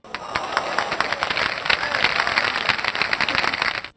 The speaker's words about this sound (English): If you succeed in completing the level objective, you'll hear a round of applause